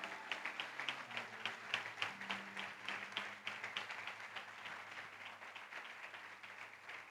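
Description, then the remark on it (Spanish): A crowd claps together in a steady rhythm, many hands producing a dense, sustained patter over a faint low musical hum, with no voices standing out. “El que aplauda, aplauda, aplauda.”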